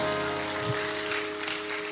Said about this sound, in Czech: A skvělé skupině bez kompromisu, pojďme jim zatleskat.